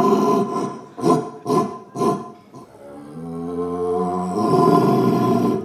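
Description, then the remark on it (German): A man imitates a red deer stag's roar in a deer-calling contest at a hunting fair of the Müritz district hunting association: a few short, rhythmic grunting bursts followed by a long, deep, drawn-out bellow that swells at the end, loud, with no talking. “konnte sich gegen fünf weitere Hirschrufer durchsetzen.”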